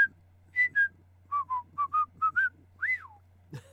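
A person whistles a lively, tuneful phrase of about ten short clear notes, hopping between pitches, ending with a rising-and-falling swoop. No one speaks over it; a low steady hum runs underneath.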